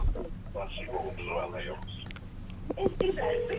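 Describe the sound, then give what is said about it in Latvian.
Thin, telephone-filtered voices of a radio call-in overlap with a faint, lagging copy of studio speech from the caller listening on a computer, producing a muffled echo over a steady line hum, with brief clicks and tonal beeps near the end. “Mēs dzirdam, ka jūs mūs dzirdat, laikam datorā klausoties, ja ar tādu nobīdi skaņa ir.”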